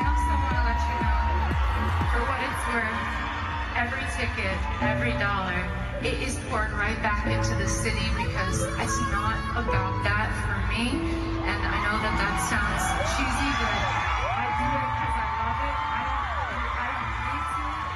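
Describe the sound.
A large concert crowd screams and cheers loudly and continuously at one of the last dates of a singer's US tour, with shrill whoops rising above the roar while the singer's amplified voice speaks over the din, saying the tour is not about money.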